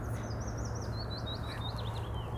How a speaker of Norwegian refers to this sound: Hva for en så koselig fuglelyd og skikkelig fin eh, bakgrunns... En eh, slik fin kulisse rundt oss her, da.